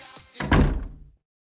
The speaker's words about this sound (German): Jetzt war gerade so eine gute Stimmung im Saal maulte der DJ mit den wuschligen Haaren, packte sein Radio und ging zur Tür raus.